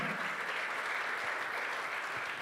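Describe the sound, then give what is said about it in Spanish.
A crowd claps steadily and loudly, a dense wash of many hands with no pauses, filling the whole moment without any voices on top. “Sí, del otro aplauso fuerte.”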